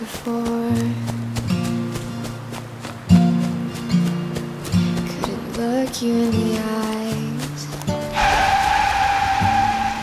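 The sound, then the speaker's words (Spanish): A car's tonal engine and traffic noise build over several seconds, then a loud, sustained tire screech erupts near the end as a car with fogged windows brakes hard and skids, almost hitting a pedestrian crossing División del Norte. “Fue en ese momento, al tratar de cruzar División del Norte, que un auto con vidrios empañados estuvo a punto de atropellarme. Se enfrenó salvajemente.”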